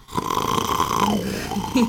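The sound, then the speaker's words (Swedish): Someone imitates a snore with their voice, mimicking the soft palate vibrating against the back wall of the throat when lying on the back: one drawn-out, rattling, buzzy breath lasting about two seconds, fairly loud, its pitch dropping partway through. “Däremellan har du den mjuka gommen som i väldigt många tillfällen bidrar till att när man ligger ner på rygg så lägger den sig mot bakre svallväggen. Vi andas med luften upp och ner. Det blir som en ventilkil liksom.”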